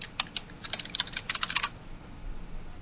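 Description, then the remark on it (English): Rapid typing on a computer keyboard, a quick irregular run of sharp clicks for about a second and a half, then only faint room noise. Moderately quiet, with no talking. “You can hear us type.”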